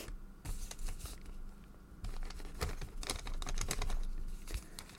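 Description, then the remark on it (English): A pen scratches across paper as a document is signed, a quick series of irregular strokes and scribbles with small pauses between them, fairly quiet and with no voices. “There. I signed it.”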